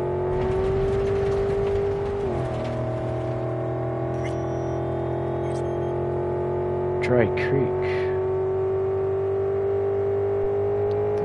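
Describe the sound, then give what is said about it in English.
A steady car engine drone from a video game, driven in first-person view, with a brief pitch dip and recovery as if shifting gears, holding a continuous low hum throughout while a man talks briefly. “Not used to driving in first person.”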